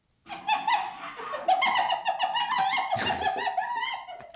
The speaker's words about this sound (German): Es ist ein Tier mit hellbraunem Fell, hat so dunkle Tupfen drauf, wie Hunde, aber mit runden Ohren obendran. Bärennase so ein bisschen, so eine runde Spitze, also runde Nase. Und lacht lustig. Kommst du drauf? Es ist eine Lachhyäne